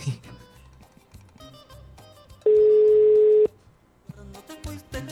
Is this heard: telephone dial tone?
yes